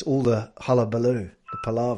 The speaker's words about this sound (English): So there was a little bit of pinging noise in the background for me. Yeah. And that was my phone